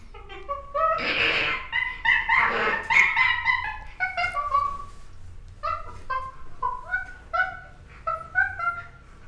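A chimpanzee in a zoo vocalizes in a long run of rising hoots and calls, starting with a few loud, harsh bursts and then continuing as a steady rhythmic series of shorter pitched calls.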